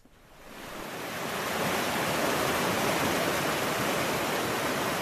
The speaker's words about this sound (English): A flooded stream, a broken bridge, and a solitary figure wading through the swirling water with a bright yellow box on her head.